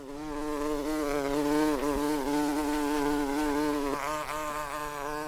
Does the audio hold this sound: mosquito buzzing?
yes